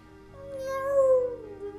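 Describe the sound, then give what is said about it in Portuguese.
A single drawn-out cat meow, rising and then sliding down in pitch, clear, with no talking over it. “Era um gato listrado e sorridente, de gravata borboleta e rabinho obediente.”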